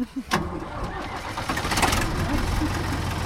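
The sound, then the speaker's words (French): An old tractor from Seine-Saint-Denis, France, with an old-style number plate, cranks and catches after a brief pause, then rumbles up into a loud, steady diesel idle with a deep, throbbing low end. “La plaque d'immatriculation à l'ancienne, mais on a bien notre 93, on, est bien sur un tracteur euh, de Seine-Saint-Denis. Alors, on est parti.”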